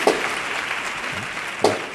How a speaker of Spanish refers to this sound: aplaudido el final de la marcha,